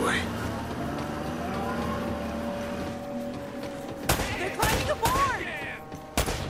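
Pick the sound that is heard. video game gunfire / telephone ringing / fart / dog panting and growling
video game gunfire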